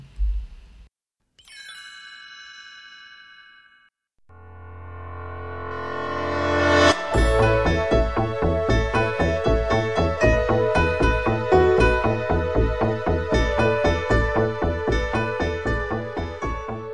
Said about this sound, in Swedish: det är temat för Jönssonligan